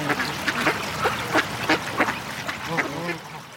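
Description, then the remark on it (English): Several ducks on Mill Creek, which runs straight through town, quack in quick, irregular bursts, a lively cluster of nasal calls overlapping one another against a soft outdoor background. “Mill Creek running straight through town and always filled with ducks.”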